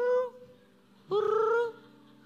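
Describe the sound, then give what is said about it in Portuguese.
A person imitates the coo of a sick black pigeon at a hospital ICU window, with two voiced calls: a brief hum at first, then a longer, louder one that swoops upward and holds before stopping. “Um pombo preto ficava o tempo todo me olhando e fazendo.”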